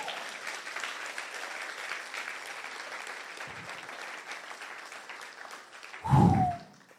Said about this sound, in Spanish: Si usted lo cree, den un aplauso fuerte a Jesucristo.